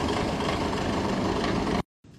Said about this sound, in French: Là là, putain, le tracteur. Bien sûr, le mec a décidé de se garer devant moi, quoi.